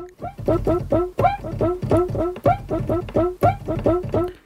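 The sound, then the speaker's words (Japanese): A cuíca sample, mapped note by note across the keys of a sampler keyboard, plays a busy, syncopated samba groove on its own, its squeaky, pitch-bending squeals repeating in a tight rhythm, fairly loud. “そう、今これね、鍵盤にクイカの音をね、一つずつこう配置したんですけど”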